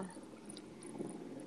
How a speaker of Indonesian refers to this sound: ya ampun ini suara motor mohon maaf ya uh, biasa rumah pinggir jalan